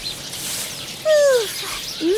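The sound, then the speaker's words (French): Birds chirp over a steady airy hiss: one loud, drawn-out descending call, then a second shorter one just after, both clear with no talking. “Ah des oiseaux ah, Alerte Alerte Ne t'inquiète pas, je vais te couvrir avec ma main.”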